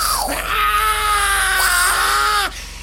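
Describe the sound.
A voice imitates a frightening, jaguar-like woman's scream: one long, loud, shrill wail held for about two seconds, wavering in pitch before cutting off abruptly.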